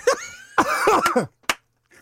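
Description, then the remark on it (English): Fairly loud coughing and throat clearing: a quick hack, then a longer raspy, rumbling clearing of the throat, one sharp cough, and a faint trailing rasp. No talking. “Do you want to cough that up?”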